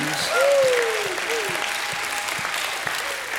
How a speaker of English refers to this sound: Somebody, anybody, give him a hand clap and a shout of praise.